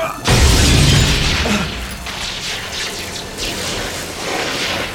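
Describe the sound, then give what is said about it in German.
A crystal ball, held overhead and smashed with full force on the floor, gives a sudden, loud crash. Then comes a long scatter of crackling, tinkling fragments that keeps rattling and hissing for several seconds as the frozen lightning inside hisses through the air. “Er hielt sie über seinen Kopf und schmetterte sie mit aller Kraft auf den Boden.”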